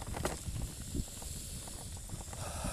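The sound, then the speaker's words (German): Crickets chirp in a dense, steady chorus after sunset while it is still light, a thin high shimmer that never stops. Faint outdoor rustling and low bumps sit beneath it. No one speaks. “Das Zirpen der Grillen.”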